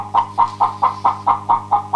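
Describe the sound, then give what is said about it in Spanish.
Hens clucking in a steady, rapid rhythm, about nine short clucks over two seconds, clear with a low hum underneath and no talking. “Tenemos el momento, ahí están las gallinas”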